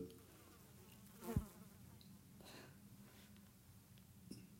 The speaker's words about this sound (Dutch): twee vliegen die graag bij het gesprek aanwezig willen zijn.